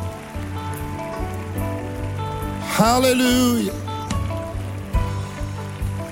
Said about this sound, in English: Why don't you clap? People are coming from across the room. People are coming from across the room. Hallelujah. Hallelujah. Come on, you keep clapping, they'll keep coming.